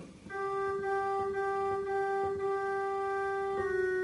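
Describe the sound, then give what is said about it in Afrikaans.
The alto line of a hymn played alone on a keyboard, with steady, organ-like sustained notes: one long held tone after a brief opening note, then a change near the end. “En die alt klink so.”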